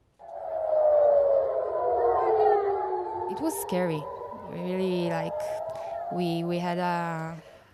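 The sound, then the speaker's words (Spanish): An air raid siren wails in a long, sliding tone that fills the opening seconds, then fades under overlapping voices and fainter warbling tones, in an Israeli municipality within range of Hezbollah missiles during cross-fire between Hezbollah and the Israeli army. “continúa el fuego cruzado entre Hezbollah y el ejército israelí, los municipios que entran en el radar de los misiles de Hezbollah prueban sus sistemas de defensa entre sonidos de explosión y sirenas que aumentan el pánico entre la población.”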